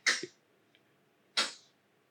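Two tiny baby sneezes, each a quick soft burst, spaced just over a second apart. They sound faint and slightly distant in an otherwise quiet room, with no talking.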